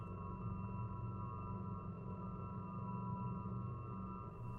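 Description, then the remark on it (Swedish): A steady, droning UFO hover effect: a deep low rumble layered with sustained electronic tones that hold unbroken at an even, fairly loud level, with no voices. “UFO sounds”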